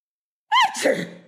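A single exaggerated, staged sneeze: a rising voiced 'ah' followed by a sharp breathy burst that trails off, with silence before it and no talking.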